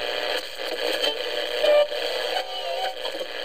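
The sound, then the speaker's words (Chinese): Steady static hisses as a radio's FM dial is turned, shifting slightly, with a brief whistling tone rising out of the noise midway and faint wavering tones as stations drift past. No voices. “暖融融的奶茶，在这个午后纯净时光，打开收音机，旋转调频。”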